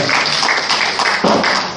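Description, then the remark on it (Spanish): An audience breaks into applause for the short film Invisible, a dense, steady patter of many hands clapping together at a fairly loud, even level for a couple of seconds, fading slightly at the end. “Bueno, pues un aplauso.”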